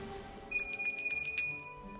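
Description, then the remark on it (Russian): A small bell, rung by the king at Linderhof Palace to have a dining table raised from the kitchen below or lowered away by a mechanism, rings in a quick, bright flurry of about eight strikes lasting roughly a second, clear, then fades into a quiet low background hum. “После трапезы король звонит, и стол исчезает.”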